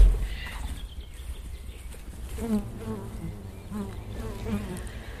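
honeybees buzzing

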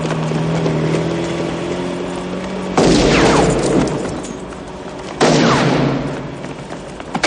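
pistol gunshots

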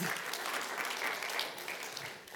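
audience applause

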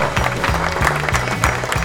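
applause

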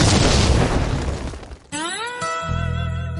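explosion sound effect

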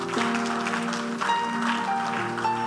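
audience clapping

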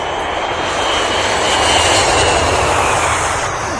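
airplane engine flying past

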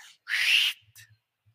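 person whistling

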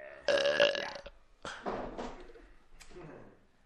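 burp

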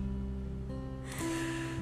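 deep breath in

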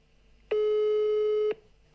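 phone call ringing tone

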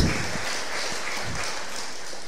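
audience clapping

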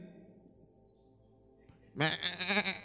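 sheep bleating

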